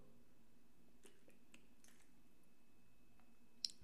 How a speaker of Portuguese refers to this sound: vou até beber um, vou até beber aqui um, água para contar essa história.